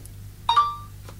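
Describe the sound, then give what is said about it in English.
A phone notification sounds once: a quick two-note electronic chime that rings out briefly and fades, heard clearly over a low background hum with no one speaking. “How do I turn off that notification?”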